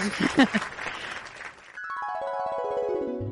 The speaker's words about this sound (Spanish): ¡Bravo! un aplauso.